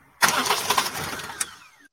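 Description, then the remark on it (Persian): A car engine turns over and starts, then runs with a steady mid-pitched rumble for under two seconds before cutting off abruptly. It is fairly loud, with no one speaking. “چون صدای کار انجین ماشین بود یعنی میفهمه که انجین ماشین هم هست.”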